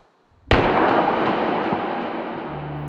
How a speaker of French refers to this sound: Il entreaperçoit la silhouette du conducteur au moment où celui-ci émerge hors de la voiture, vise dans sa direction et fait feu une seconde fois.